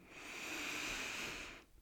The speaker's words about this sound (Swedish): Ta några djupa andetag. Andas in genom näsan.